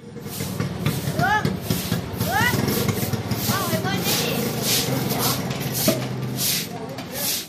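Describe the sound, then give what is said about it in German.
Repeated scratchy swishes of a woman sweeping a temple courtyard with a broom, coming in a steady rhythm of strokes, with voices chattering and calling in the background throughout. “Eine Frau fegt den Tempelhof, eine andere wäscht Wäsche.”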